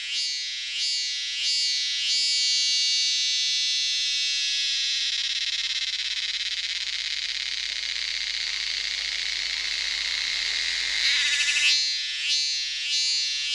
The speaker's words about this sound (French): Ça, c'est une de mes préférées. C'est une euh, cigale thaïlandaise. Je pense que c'est probablement dans cette partie de l'Asie que se trouvent les plus belles espèces de cigales.